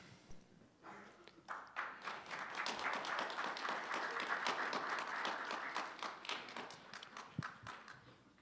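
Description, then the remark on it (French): A standing crowd acclaims a man at a race, bursting into loud, sustained applause, a dense patter of many hands clapping that swells within a second or two and holds steady before thinning out near the end. “Ce que vous voyez peut-être pas, mais c'est la foule qui est debout. Et qui acclame cet homme.”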